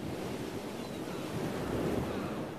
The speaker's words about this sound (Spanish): el destino me arrastró hasta el puerto viejo, ese lugar donde el mar besa la tierra y su agreste danza explota en una arenosa espuma de sal.